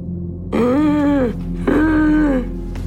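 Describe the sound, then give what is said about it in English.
Two drawn-out, labored breaths from a congested chest with a raspy, groaning wheeze, each lasting under a second and separated by a short pause, with a low rumble underneath. “You know, his breathing was just kind of labored.”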